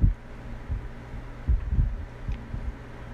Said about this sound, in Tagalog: sorry ha if may naririnig kayong may ingay na that is electric fan